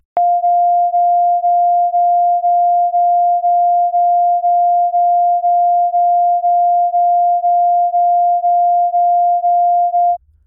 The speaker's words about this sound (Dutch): En zelfs aan die karakteristieke klop kan je horen hoe die twee precies verschillend waren. Hier heb ik bijvoorbeeld een toon niet van 700 en 700,5, maar 700 en 702, die ietsje verder uit elkaar liggen.